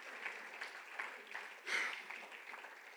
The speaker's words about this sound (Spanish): Denle un fuerte aplauso a Cristo, hermanos. Give the Lord a praise.